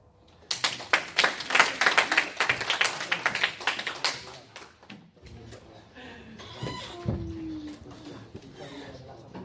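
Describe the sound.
A burst of dense, loud clapping from an audience applauding a speaker lasts about four seconds, then stops abruptly, leaving quieter background sounds and faint voices.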